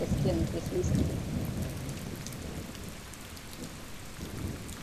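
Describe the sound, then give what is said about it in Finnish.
Steady rain hisses throughout a thunderstorm with lightning striking every few seconds, a deep, rolling rumble of thunder swelling loudest in the first second and fading gradually, then stirring faintly again near the end. “Salama iski ehkä muutaman sekunnin välein ja oli jyrinääkin.”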